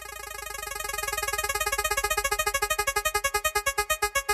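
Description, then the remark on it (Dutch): A prize wheel spins with a rapid stream of bright ticks that gradually slow and spread apart as it winds down, loud with no talking. “Ja, geef hem maar even een jengel aan.”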